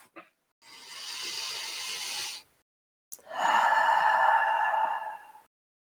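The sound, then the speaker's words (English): A single deep breath taken as a breathing exercise: a steady, airy inhale lasting over a second, a short pause, then a louder, slightly longer breathy exhale. No one speaks. “Just let's do 3 breaths in and out.”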